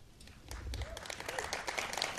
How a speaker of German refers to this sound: Ja, viel Applaus im Rosengarten.